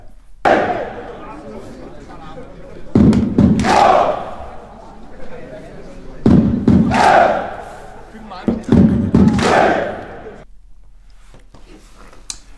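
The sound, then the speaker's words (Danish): A crowd of about 250 football fans chants and shouts together in loud, rhythmic bursts, sending off the players from a hotel in Skodsborg. Four surging cheers rise and fall before fading out. “Sendt over 250 mennesker cirka, hører vi.”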